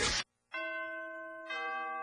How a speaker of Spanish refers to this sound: En la radio del diario ya se escuchan las campanas navideñas. La música y la alegría de la Navidad ya llegó.